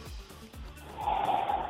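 Heavy breathing with a few sharp gasping, snort-like breaths, a rough rhythm of forceful inhales and exhales into the microphone, with no talking.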